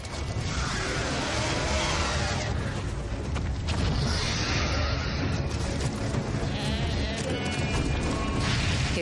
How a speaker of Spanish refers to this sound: Escupe fuego sobre el rebaño. Se aleja volando con una cabra.